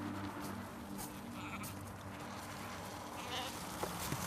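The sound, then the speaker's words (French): Sheep from a family's flock bleat over a steady outdoor background, several overlapping calls, fairly soft and continuous across the few seconds. “vous êtes toujours occupé comme ça des moutons de vos parents Oui, quand ils voyagent.”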